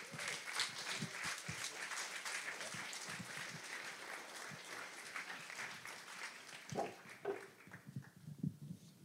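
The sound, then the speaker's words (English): A crowd applauds steadily, dense clapping for several seconds before thinning out and fading near the end, with a few scattered claps and faint murmurs remaining; the applause welcomes bread-making authors Michael Harlan Turkell and Nathan Myhrvold. “Ladies and gentlemen, please join me in giving a warm round of applause to Michael Harlan Turkell and Nathan Myhrvold.”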